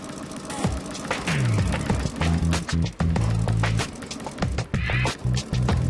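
An electric sewing machine runs in close, loud bursts, its motor whirring and needle clattering as it stitches thick upholstery, pausing and restarting several times.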